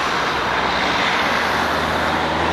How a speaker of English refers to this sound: I really hope you can hear me with all the cars going around. You're going to think, whoa, she's very dumb. She's recording next to a huge road with lots of cars, but I'm not. I don't know. I think everyone decided to drive here tonight.